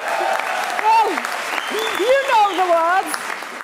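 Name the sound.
crowd cheering and applause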